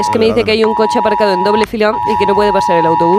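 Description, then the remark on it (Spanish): A steady, piercing emergency alert tone from a mobile phone, sent to all mobile phones in the Community of Madrid, starts early and holds continuously, ringing out beneath a person speaking over it throughout. “Y para eso es una alarma en todos los móviles de la Comunidad de Madrid.”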